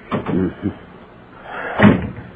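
A few muffled words are spoken, then after a pause a door swings shut with a single solid thud near the end.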